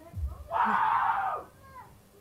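A father lets out a loud, raw scream of wild celebration at the third goal of a football match against Paris, held for about a second, then drops back to quieter background noise.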